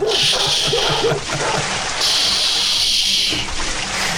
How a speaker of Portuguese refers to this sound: Tinha que ser o balde d'água. Tinha que ser um balde d'água. Balde d'água. Acorda!